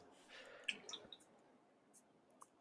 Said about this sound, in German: Das ist ein sehr schönes Schlusswort und ich finde besonders schön, dass im Hintergrund immer noch das Meer, äh, Meeresrauschen zu hören ist.